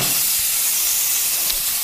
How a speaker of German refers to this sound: jetzt mache ich immer erstmal den Test und mache jetzt einfach mal den Dampf an und guck mal, wie trocken der ist.